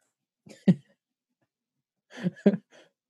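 Two sharp sneezes separated by about a second and a half of quiet, the second a bit longer with a breathy lead-in and a short trailing exhale.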